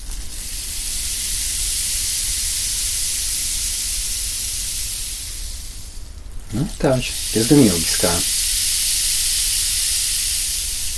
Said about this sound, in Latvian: Lietus koks. Jā, tas ir lietus koks. Nu, lapāņi. Var arī tā kā grabināmo viņu, kā grabulīti arī izmantot.